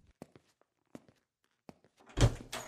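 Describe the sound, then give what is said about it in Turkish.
A handful of dull wooden knocks land at uneven intervals, then a louder, rougher burst of scraping as Omar Khayyam opens the door, with no voices present. “Ömer Hayyam kapıyı açtı.”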